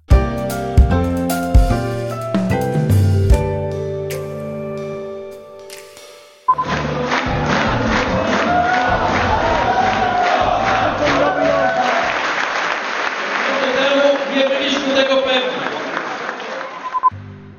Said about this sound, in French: Ambiance de fête dans le camp de Donald Tusk